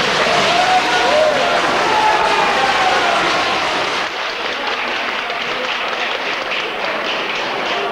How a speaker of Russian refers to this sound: Как вы слышали, решение о смертной казни вызвало аплодисменты.